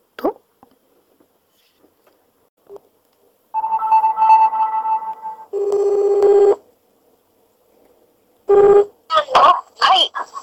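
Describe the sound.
A few quick beeps of a phone being dialed, then steady electronic ringback tones repeating over a call line, followed by a voice answering at the end.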